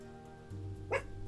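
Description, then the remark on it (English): A dog gives one short, sharp bark partway through, standing out clearly against a low, steady background hum, with no one talking. “Every time people walk down the alley, the dog, even that cats, dogs, you name it, he just loses it.”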